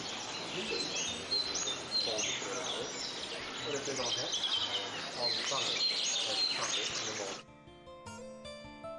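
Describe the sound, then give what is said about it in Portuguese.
Bright, warbling nightingale song trills and chirps continuously at moderate loudness over a dense outdoor background on a mountain by the Aegean Sea, above the ruins of ancient Ephesus in Turkey, ending with a shift to sustained tonal sounds in the last seconds. “Com o Canto dos Rouxinóis”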